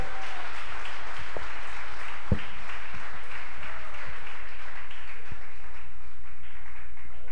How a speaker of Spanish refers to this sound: Da palmas a Dios en esta mañana. Fuerte.